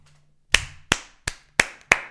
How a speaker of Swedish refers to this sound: Applåder.